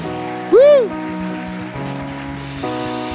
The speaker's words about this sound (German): Geben wir Ihnen nochmal einen riesen Applaus.